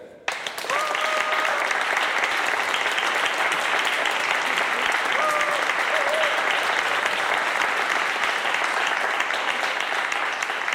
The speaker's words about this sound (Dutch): Mag ik een hartelijk applaus